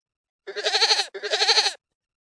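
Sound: goat bleating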